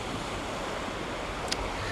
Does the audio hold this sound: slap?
no